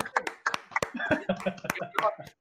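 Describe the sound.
Scattered hand claps from a few people, sharp and irregular, mixed with voices and light laughter close by.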